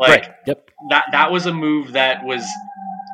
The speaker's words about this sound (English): sorry about the the sirens.